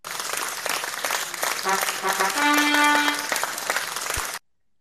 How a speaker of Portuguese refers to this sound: Senhoras e senhores, outra salva de palmas agora pro AI, porra!